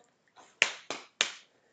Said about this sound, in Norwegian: Og etter en god eh, tur med gode opplevelser, så setter jeg meg ned og så tenker jeg over hvor bra det har vært. Og så ankrer jeg disse gode opplevelsene. Jeg klapper meg på armen sånn